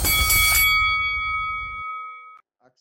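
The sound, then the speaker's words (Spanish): A wrestling ring bell clangs loudly, its bright metallic tone ringing out and slowly fading over about two seconds, with no voices. “y que suene la campana.”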